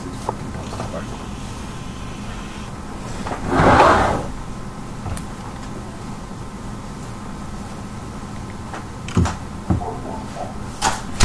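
door being closed

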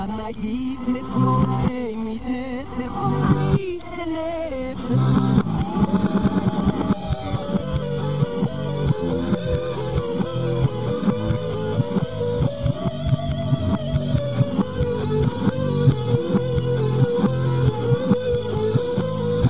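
song played in reverse

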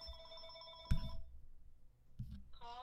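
telephone ringing

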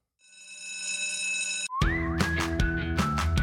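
school bell ringing

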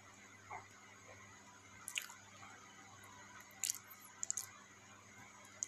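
chewing food

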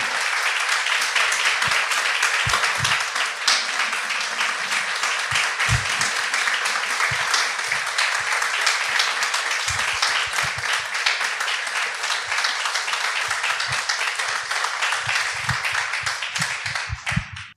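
welcoming applause

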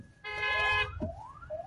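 ambulance siren

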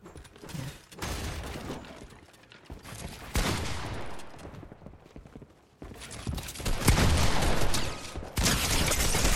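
video game gunfire

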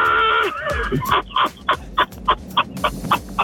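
turkey gobbling

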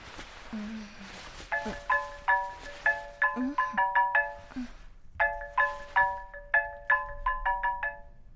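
phone ringing

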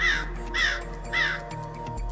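crows cawing

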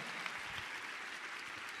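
audience applauding

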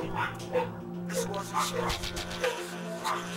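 dogs barking

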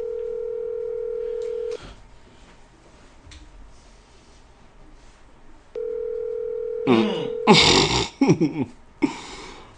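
phone call ringing

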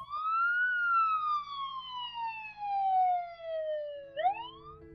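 ambulance siren

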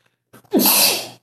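sneeze

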